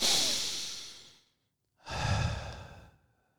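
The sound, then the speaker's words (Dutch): A single deep breath: a long, airy inhale lasting over a second, a brief pause, then a fuller, slightly lower exhale, clear with no talking. “Wat handig is om eerst lekker te gaan zitten en een diepe ademhaling te doen.”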